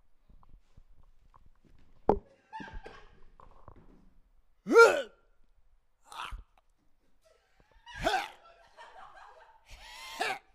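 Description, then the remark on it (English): A comedian on stage at a roast battle imitates a dog dry heaving onto a couch: about six raspy, gulping vocal bursts at irregular intervals, with two especially loud, strained heaves and quieter breathy sounds between them. “tonight, I will be doing my impression of a dog dry heaving onto a couch.”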